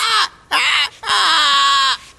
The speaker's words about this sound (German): Na nun, äh, hier sind ja gar keine Einbrecher. Nee, aber ein Papagei. Huh? Ein Graupapagei. Na, sowas.